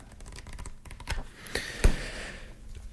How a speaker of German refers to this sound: ich blätter hier mal.